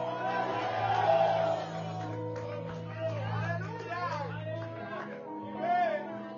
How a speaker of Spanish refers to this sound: El que lo crea debe un grito de gloria a Dios.